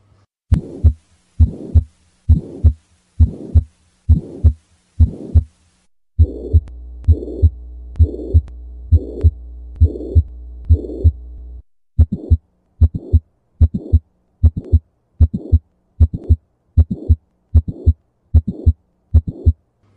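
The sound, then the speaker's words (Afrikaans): Steady, evenly paced heartbeats with a soft whooshing systolic murmur, heard when a heart valve does not work properly, filling the gap between the first and second heart sounds during contraction of the heart; no talking; a low hum runs underneath partway through. “Ja, so tipies tussen die eerste en die tweede hartklank wat ons noem systolie of samentrekking van die hart, gaan ons 'n sistoliese geruis kry.”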